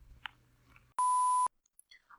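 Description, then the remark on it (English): A single loud electronic beep, a steady pure tone lasting about half a second, starts and stops abruptly. A few faint clicks and chirps surround it in an otherwise quiet background. “Beep beep boo beep boop boop.”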